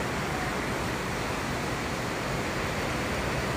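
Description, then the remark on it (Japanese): Heavy rain from a downpour pounds steadily on a car at a highway service area, a dense, unbroken hiss-and-patter roar that stays loud and even throughout, with no voices. “今大雨超怖いもう雨がバシャンバシャンなっててなんかもう前がほとんど見えないで”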